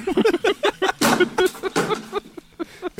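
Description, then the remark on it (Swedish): A guitar being stomped to pieces: a rapid, irregular series of loud, sharp cracks and thuds, some ringing briefly, with short pauses between the heaviest blows. “ja, nu stampar han den till spillror.”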